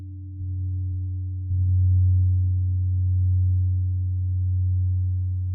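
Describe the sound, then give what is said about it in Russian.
Deep gong strikes, two in quick succession, each swelling into a low, sustained humming resonance that lingers steadily without any voices. “И, возможно, формирование этих желаний будет происходить между ударами гонга.”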